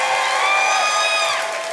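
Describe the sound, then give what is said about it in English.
A church crowd at Life Church claps and cheers for Jesus, a dense wash of applause with whoops and shouts riding on top, loud and sustained throughout without a break. “Come on, give Jesus a better hand clap, everybody”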